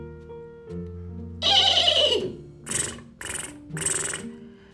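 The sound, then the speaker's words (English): A person imitates a horse's neigh: one long, high whinny sliding downward, followed by three shorter rising-and-falling bursts, fairly loud, with no talking. “I see a blue horse looking at me. Hey, blue horse, blue horse, what do you see?”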